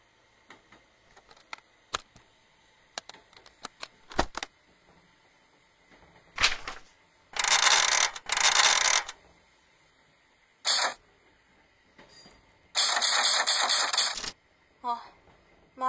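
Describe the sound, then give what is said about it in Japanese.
Mechanical clatter of a folding typewriter: scattered sharp key taps and clunks, then loud rasping, grinding bursts as the type bars jam, with a brief bright metallic ring near the end. “型からまったタイプライターですかそれも折りたたみ式なんて珍しい高い買い物しちゃったわ”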